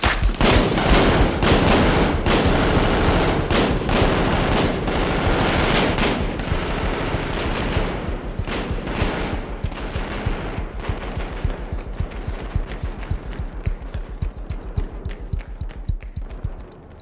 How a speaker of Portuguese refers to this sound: a sequência que eles estão dentro de um barco virado e aí tá comendo tiro lá fora, o tiro tá uhum. entrando no barco e ninguém sabe de onde está vindo o tiro e eles decidem se eles têm que sair ou não.